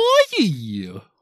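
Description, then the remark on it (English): A single voiced burp lasting about a second, rising briefly before dropping into a low, croaky rumble that trails off. “Did you just burp?”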